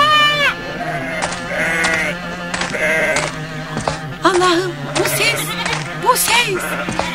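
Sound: sheep bleating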